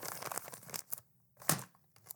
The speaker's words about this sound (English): I can't slap the envelope because it won't close and money will go flying out.